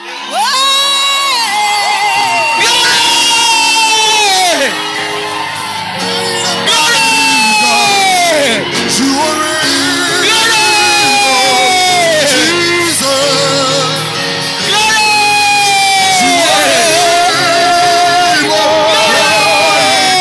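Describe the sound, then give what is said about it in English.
A crowd invited to shout and rejoice for two minutes shouts and rejoices together, a loud continuous wash of overlapping voices with high whoops and rising, falling cries rolling through for about twenty seconds. “I want to give you two minutes to just shout and rejoice.”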